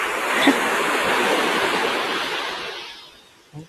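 Ocean surf washing onto a beach at the Hayama seaside in the afternoon, a broad steady hiss of breaking water that slowly recedes and fades toward the end, with a brief soft thump at the close.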